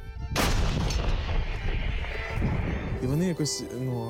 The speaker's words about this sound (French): Je sors mon violon, je commence à jouer et, en fond, on entend les tirs entrant et sortant.